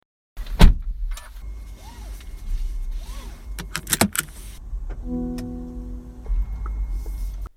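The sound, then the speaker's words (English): An electric car at a car dealership in Perth: a door thuds shut, soft electronic chimes and clicks follow, then a steady tonal whine and hum rise from the quiet vehicle, with no voices. “This is the sound of the future.”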